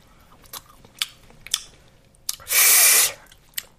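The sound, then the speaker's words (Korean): Someone chewing braised short ribs: soft, wet bites land roughly every half second, broken by one loud, harsh burst of noise lasting about half a second. No one speaks. “그럼 저 갈비찜 먹어봐.”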